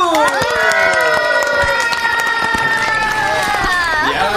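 Loud, sustained cheering and squealing from a group on a radio show, greeting the announcement of a new album, high excited voices layered over a steady wash of clapping that continues for several seconds without a break.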